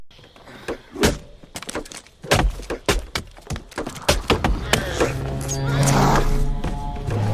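A rapid series of sharp, woody thunks like an axe chopping wood, some heavier than others, followed by a loud, sustained horn blast that swells and holds to the end.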